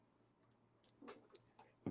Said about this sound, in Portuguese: se você quiser terminar de mastigar